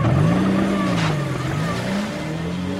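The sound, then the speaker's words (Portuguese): A car engine roars loudly as a driver speeds off from outside a forensic institute with a man in the back seat, its droning pitch climbing and wavering for a few seconds, with no one talking. “Hiroshi corre, mas o carro dispara na frente e a única coisa que ele consegue fazer é anotar a placa”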